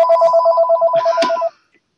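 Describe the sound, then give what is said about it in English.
A home telephone rings with a rapid, warbling electronic trill, steady and fairly loud, then cuts off abruptly after about a second and a half, leaving near silence. “Sorry about that. Stephen's home phone.”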